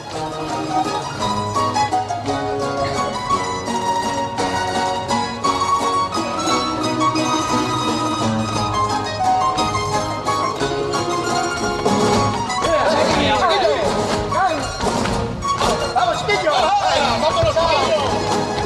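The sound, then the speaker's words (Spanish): A carnival choir sings a tango, many voices together in a full, steady chorus with instrumental backing, loud and continuous, with the singing growing more ornamented toward the end. “Escuchemos este pedazo de tango.”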